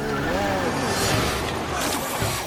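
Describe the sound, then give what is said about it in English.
A voice makes a revving racing-car engine noise while sliding shells around a racetrack drawn in the sand, a continuous vroom that rises and falls in pitch for a couple of seconds, loud. “that's a shell, not a car”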